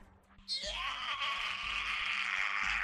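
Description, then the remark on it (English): A voice imitates a grenade bursting with a shrill, piercing scream, starting abruptly and holding a loud, strained wail for a couple of seconds, with no other speech. “it just yells and it just pierces your eardrums.”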